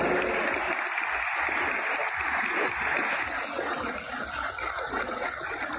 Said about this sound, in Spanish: Pido un fuerte aplauso para los miembros y los consejeros del Instituto Nacional Electoral